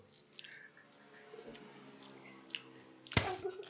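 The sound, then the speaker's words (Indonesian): Crunchy chewing of crisp chips (keripik), with scattered bites and crackles that build to a sharp loud crunch near the end, over a faint steady hum. “ini enak ini keripik nih coba ya”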